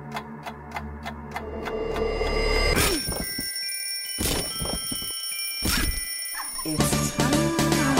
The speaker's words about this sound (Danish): det lyder, det lyder øh, lægger jeg mærke til nu, når man hører det sådan bare på lyd. Det lyder meget sådan øh, morbidt, når man smadrer et græskar med en køl. Ja, det er en vild lyd, når, ja, det er de meget.